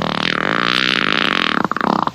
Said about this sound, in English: You're listening to Outlaw Radio, where we're proper gentlemen because we always ask. You mind if I fart?